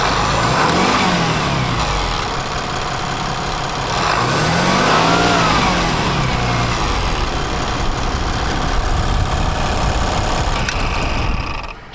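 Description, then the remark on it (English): A loud, mechanically injected 5.9 diesel engine from the very first Ram clatters at idle and revs up twice, the pitch sweeping up and back down each time, with a steady rough knock throughout and no talking. “That's, that's the five nine, the mechanically injected from the very first Ram D001.”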